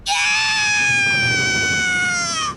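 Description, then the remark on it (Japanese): A single long, high-pitched scream from the sky, coming from a cable car climbing a mountain above a villa, holds steady for about two and a half seconds, loud, its pitch sagging slightly before it cuts off, with no talking around it. “ラブール警部は別荘の隅々まで調べましたが特に異常は見つかりませんでしたその時突然空から悲鳴が”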